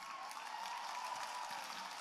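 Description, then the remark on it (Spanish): Women applauding together, a steady, dense patter of clapping that holds at an even, moderate level for the full two seconds, with no voices standing out. “Las mujeres están aplaudiendo, pero es la verdad.”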